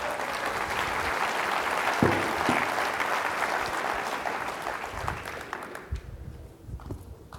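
An audience applauds steadily, a dense wash of many hands clapping at close range, holding strong for several seconds before gradually thinning out toward the end.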